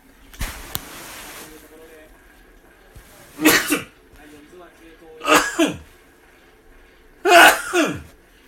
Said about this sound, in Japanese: さあ、くしゃみが出そうだ。くしゃみが出そうだ。